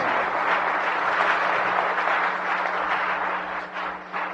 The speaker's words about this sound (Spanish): Denle un aplauso, por favor, a todos sus directos.